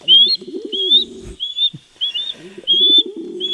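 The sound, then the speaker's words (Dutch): An osprey at its nest in the Brabantse Biesbos gives a steady series of sharp, high whistled calls, repeated about once a second, while a lower, softer cooing bird sounds underneath. No one speaks. “Ja, we hebben dit jaar weer het geluk dat we vanaf vandaag weer 24-7 mee kunnen kijken in het nest van de visarend in het hart van de Brabantse biesbos.”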